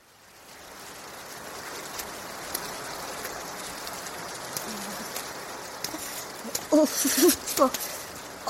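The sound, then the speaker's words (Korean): Steady rain falls with a soft, constant hiss and scattered patter of drops, fading in at the start and holding even, with a few brief sharper sounds near the end. “어서 들어가, 비 맞아.”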